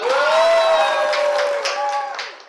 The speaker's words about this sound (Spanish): pero todos los que tengo aquí alrededor mío son venezolanos. Aplausos para ustedes.